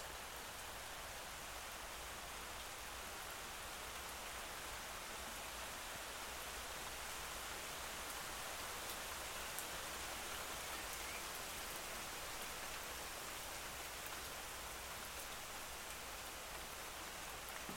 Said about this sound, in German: Das ist dein Gewitter. Das ist deine Reinigung. Das ist dein Sommerregen.